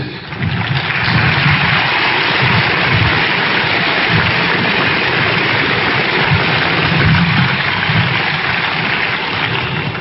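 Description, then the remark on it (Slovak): Loud, steady applause from an audience fills the whole stretch, a dense wash of clapping that holds at an even level from start to finish, with no voices over it. “Ďakujem za potlesk”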